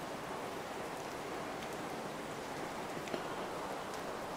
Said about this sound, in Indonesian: mungkin bisa kedengar bagaimana rintik hujan di luar sana menemani malam ini